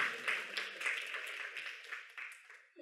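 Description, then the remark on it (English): An audience applauds God, a dense wash of many hands clapping at once, fairly soft and steady before gradually tapering off toward the end. “Give God a round of applause for that.”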